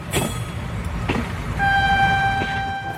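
A train bound for Florence rumbles along the tracks with rhythmic clacks of the wheels, and a long sustained horn tone sounds partway through, loud. No one speaks.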